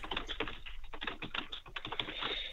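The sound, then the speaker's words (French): Keys are typed on a computer keyboard as the city name Ouagadougou is entered. The clatter is rapid, continuous and fairly loud, with a busy, uneven rhythm of clicks and no voices. “Ouagadoudou juste pour t'entendre le taper.”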